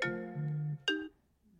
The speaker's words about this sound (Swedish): så jag sitter här nu och försöker ringa upp henne på Facetime igen. Oj, nu ringer hon här. Nej, hon vill inte svara. Nu ringer hon igen.